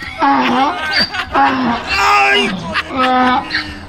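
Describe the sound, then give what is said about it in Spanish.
A voice imitates a donkey's bray in three or four loud, drawn-out honking calls that rise and fall in pitch, with short breaths between them. “No, ten cuidado porque creo que el burro te quiere vacunar a ti ahora.”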